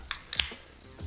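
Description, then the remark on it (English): A beer can cracks open: a couple of sharp metallic clicks, then a bright pop with a short fizzy hiss, and nothing after it. “So, folks, I'm about to crack a beer here, so cheers.”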